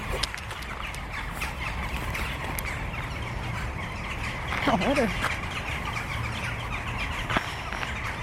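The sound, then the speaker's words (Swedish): A brief, harsh magpie call rings out once outdoors in cold weather, rising and falling, while people talk quietly over steady background noise. “Ja, det kanske var skatan med.”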